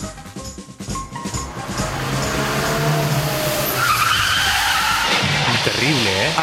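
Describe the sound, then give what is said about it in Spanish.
A motor vehicle skids with loud, sustained tire squeal over a roaring engine as it runs over a cyclist in a bike lane. The screech wavers in pitch for several seconds, intense throughout. “es el sonido de un vehículo de motor atropellando a un ciclista en un carril bici”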